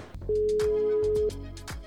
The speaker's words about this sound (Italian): E adesso insomma lo, lo andiamo a chiamare, gli telefoniamo, vediamo se ci risponde.